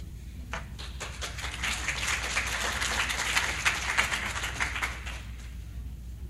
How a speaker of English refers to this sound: I would just like to say that applause was not quite loud enough, and I feel abandoned.